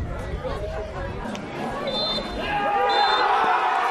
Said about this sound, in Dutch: je hoort het al. Het fluitsignaal klinkt en SW Houten is kampioen.